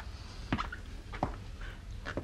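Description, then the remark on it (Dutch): Three slow, evenly spaced knocks on a door, somewhat muffled and fairly quiet, with a soft background hiss between them. “Je hoeft niet te kloppen, hij hoort het toch niet.”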